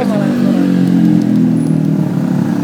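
A motorcycle engine drones loudly and steadily, a low, continuous rumble with a slight rise in pitch that holds for a couple of seconds.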